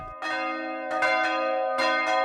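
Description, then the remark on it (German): Three small church bells of the Stephanuskirche in Übisfelde, Weverlingen, Hörsingen, each weighing between 200 and 400 kilograms, ring out in a quick, uneven cluster of strikes, each bright metallic peal overlapping the sustained hum of the last, loud with no voices. “Die Glocken der Stephanuskirche in Übisfelde, Weverlingen, Hörsingen sind schon zu hören.”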